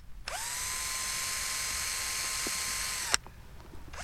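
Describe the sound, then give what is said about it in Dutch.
A power drill fastening a base plate onto the roof of a small house whirs up to speed and runs with a steady, high-pitched whine for about three seconds, then stops abruptly with a click. Nobody speaks. “Zullen we dat eh, basisplaatje op het dak eh, nog even vastzetten?”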